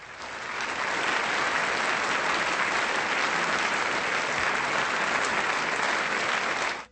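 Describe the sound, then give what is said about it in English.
A burst of steady applause sound effect, given as claps to those who guessed correctly: many hands clapping densely and evenly for several seconds at a consistent loud level before cutting off abruptly, with no voices. “I will put his picture in the chat so everybody that gets white, you get some claps.”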